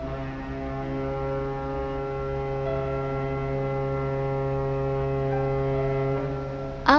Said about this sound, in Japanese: 大きな客船小笠原丸が竹芝桟橋を離れる低く太く汽笛が空に響く